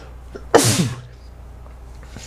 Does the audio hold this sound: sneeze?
yes